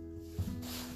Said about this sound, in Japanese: あのもしねちょっとさーみたいな、ね、ちょっと音が入ってると思うんですけどそれはえっ、ー、とね 空気清浄機ですはい空気清浄機が一応あのー、まあ、ついてるんでちょっとその音がね入ってるだと思います